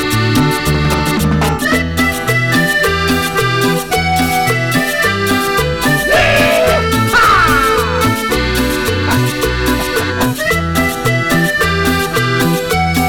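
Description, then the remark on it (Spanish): An upbeat cuarteto dance song plays loudly and steadily, with a bouncing bass line, bright keyboard or accordion melody and a driving rhythm, no talking over it. “voy a poner una canción, si tienen alguien para abrazar y bailar, agárrenlo”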